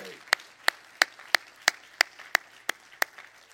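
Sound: audience clapping hands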